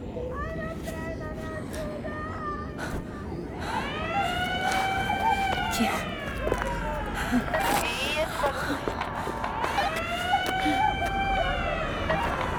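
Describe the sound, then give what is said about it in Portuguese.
A loud invasion alert siren wails in long rising and falling sweeps, cycling twice over a steady background hum, with a voice speaking briefly near the start. “É a sirene. Alerta de invasão.”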